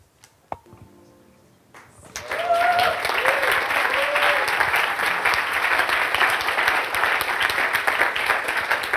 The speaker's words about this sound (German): Und danach lasst uns mit einem herzlichen Applaus